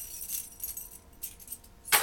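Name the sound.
keys jangling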